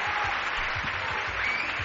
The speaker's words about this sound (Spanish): El aplauso de Valladolid se está escuchando en todo el mundo, así nos lo hacen saber ya a través de los Twitter, del Facebook, de las vías de contacto.